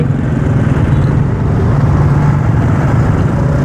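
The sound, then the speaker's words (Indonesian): A car engine, turned on again, running with a loud, steady low rumble and throb that holds even for the whole few seconds, with no voices over it. “kita nyalakan mesin lagi”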